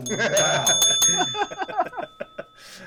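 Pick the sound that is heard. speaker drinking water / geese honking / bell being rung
bell being rung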